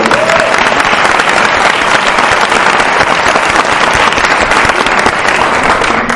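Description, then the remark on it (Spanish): A crowd applauds steadily for about six seconds, a dense, loud wash of many hands clapping at once with no pauses and no one speaking over it. “Sí un aplauso otra vez, por favor.”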